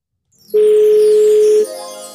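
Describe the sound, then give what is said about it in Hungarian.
A single loud, steady electronic phone ringing tone of an outgoing call holds one unwavering pitch for about a second, then cuts off, leaving a faint hum behind. “Úgyhogy most őt hívom, addig.”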